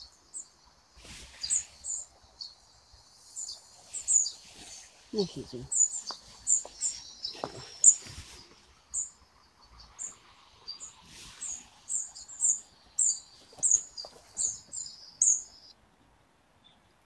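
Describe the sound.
Tree pipit calls in light rain, thin high chirps repeated in quick irregular bursts throughout, with a man speaking briefly at a low level underneath, during birdwatching at about 7 a.m. on a National Day holiday.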